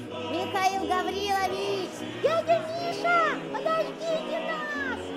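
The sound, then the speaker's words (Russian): Several neighbors' children's voices chatter and call out over one another on Christmas, as a man leaves Trinity church after the service, with high rising and falling shouts, continuous, against a low steady background hum. “Это кто там? Ребята?”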